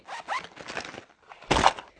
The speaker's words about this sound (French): Ah oui, je la mets dans mon cartable. Bruit de la trousse qui atterrée dans le cartable.